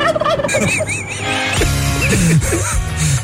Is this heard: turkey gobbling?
yes